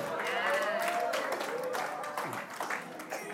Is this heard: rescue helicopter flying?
no